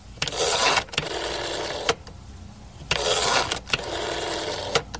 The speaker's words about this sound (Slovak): Vytáčanie pevnej linky. Potom to následné zvonenie.